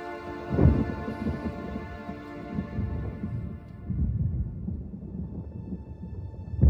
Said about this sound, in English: Yesterday's thunderstorm had continued overnight, culminating in a rush hour derecho that flattened trees and brought traffic to a stop.